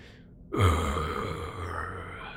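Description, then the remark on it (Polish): A voice imitates a monster from a cave smacking its jaws, opening its maw then snapping it shut: a sudden, wet burst that drops into a low growl, then trails off into a long, rasping, breathy exhale. “to biegający z jaskini i takie mlaśnięcie słyszysz, takie Kazgar, widzisz, że potwór rozdziabił na chwilę swoją paszczę, po czym nią kłapnął.”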